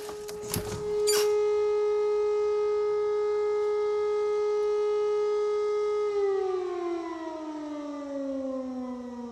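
A civil defense warning siren test in Düsseldorf holds a steady, loud wailing tone with rich harmonics, then begins to wind down in pitch, preceded by a couple of brief clicks; no voices.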